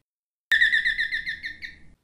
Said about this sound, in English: Their puppy Jalebi was rumbling under the bed when suddenly the doorbell rang